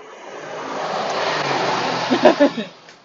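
A car passes by, its broad road noise swelling steadily to a peak and then fading away, with a few short voice sounds near the end.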